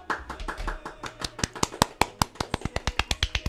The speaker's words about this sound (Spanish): Un aplauso, por favor.